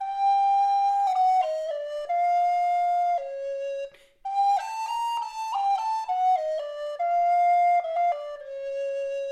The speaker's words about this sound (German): Dann die Altblockflöte, beginnt wieder mit F im tiefsten Ton.